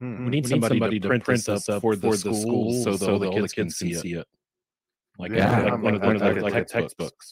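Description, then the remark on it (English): A man talks while his words come back doubled a split second later, a steady echo trailing each phrase, with a brief silent pause partway through before the echoed speech resumes. “… you, were you were echoing, echoing for, me.”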